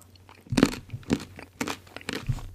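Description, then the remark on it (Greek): Close, crisp crunching of nuts being chewed, with several sharp bursts spaced irregularly over a couple of seconds and quieter chewing in between, no talking. “Τρώει φιστίκια, παιδιά, ο Όχι, Τι είναι αυτό, τι τρως.”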